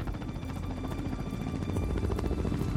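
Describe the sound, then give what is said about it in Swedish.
A rescue helicopter carrying three mountain rescuers drones steadily over a mountain range in the Provence Alps northwest of Nice, France, searching for a missing airplane, with a deep, pulsing rotor thump and a low engine rumble, constant throughout, with no voices. “Cirka 30 minuter senare åker en helikopter ut i området där man sist sett till flight 9525 på radarn.”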